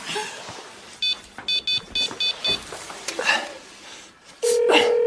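A run of six quick, evenly spaced dial-tone beeps from a phone keypad, then a loud, steady electronic ringing tone of a mobile phone begins, with faint voices in the background.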